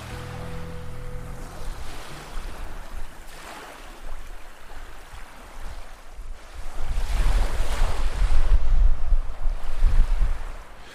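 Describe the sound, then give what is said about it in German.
Surf waves wash and break steadily on a shore where someone is surf fishing for flatfish, a broad rushing roar that swells louder toward the end, with gusty wind buffeting the microphone throughout and no voices. “Letzter Versuch für heute in der Brandung auf Plattfisch.”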